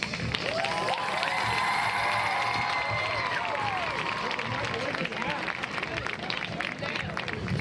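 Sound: crowd applauding and cheering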